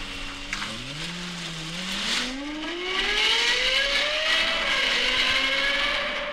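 A Lexus LFA sports car engine revs up, its Yamaha-developed exhaust note climbing steadily in pitch into a loud, smooth, high wail that holds near the top, with no voices.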